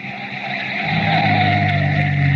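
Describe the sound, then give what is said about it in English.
A single car on a lonely dirt road bordering a village cemetery at night: its engine hums steadily, the low drone settling into an idle as the car slows to a stop, with no voices present. “On a lonely dirt road that borders the village cemetery, a single car slows to a stop”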